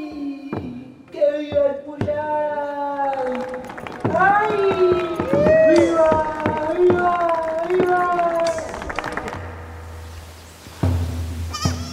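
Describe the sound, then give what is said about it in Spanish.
A crowd in La Rioja shouts and calls out festive cries at a yearly ritual, many voices overlapping in loud, wavering wails that swell through the middle and fade near the end, with a few sharp knocks early on. “Con la fuerza de esos gritos, renace cada año en la memoria del pueblo riojano la historia de dos jóvenes de una comunidad andina, Chaya y Puyay.”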